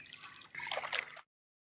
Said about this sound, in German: Die Fliege fällt mit dem Rücken zuerst ins Wasser. Sie versucht wieder hochzukommen. Vergebens. Sie strampelt und strampelt. Doch es gelingt ihr nicht, sich auf den Bauch zu drehen.